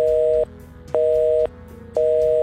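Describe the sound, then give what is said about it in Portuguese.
A telephone line tone sounds through an earpiece after a loud bang cut off the line, cycling on and off in even half-second beeps, about three pulses, fairly loud and alone with no voices. “O que quer que tenha causado aquele barulho interrompeu a linha, deixando apenas um tom baixo de descagem constante.”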